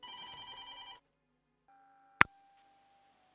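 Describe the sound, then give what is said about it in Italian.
A telephone rings once in a short, buzzy electronic burst as the first call of a live radio phone-in comes in, then falls silent until a sharp click of the line picking up, followed by a faint steady line tone and another click. “E prendiamo allora la prima telefonata di oggi.”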